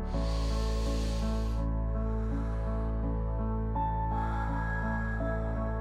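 A long, airy breath drawn in, a short pause, then a slow, hissing exhale that runs to the end, both heard over a soft, steady musical drone.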